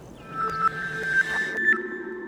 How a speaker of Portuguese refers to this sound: Écoute le vent. C'est le Sahara qui pleure.